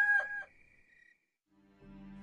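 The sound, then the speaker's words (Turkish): A single rooster crow rings out loud, its strained call trailing off after about a second. A brief silence follows before a low, steady droning tone comes in. “Petrus yine inkar etti ve tam o anda horoz öttü.”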